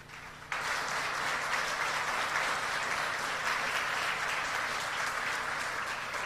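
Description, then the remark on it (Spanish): A whole church audience bursts into sustained applause after a brief quieter moment, many hands clapping densely and evenly for several seconds, filling the church with a steady wash of sound. “Ahora quiero que aplaude a la iglesia entera.”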